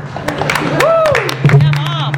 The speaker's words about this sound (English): So, i will give it up to my mom. Ooh, yeah. All right, clap it up for mom.